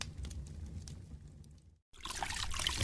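Cold water trickles and splashes as it is poured into a cup, fairly quiet, with a low rumbling first, then a brief pause before a brighter, hissing pour.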